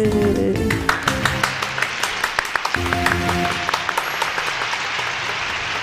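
applause

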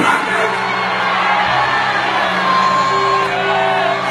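audience shouting glory

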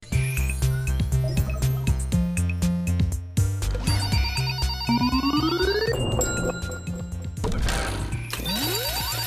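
mobile phone ringtone ringing

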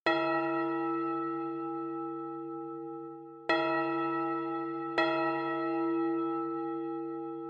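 bell ringing

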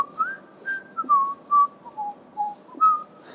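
person whistling a tune

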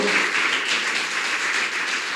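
audience clapping applause

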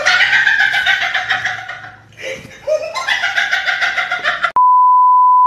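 rooster crowing sound effect

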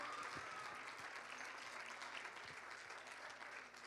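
audience hand clapping

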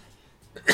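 cough or sneeze

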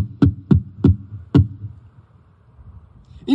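knocking on a door

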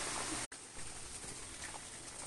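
rain pattering

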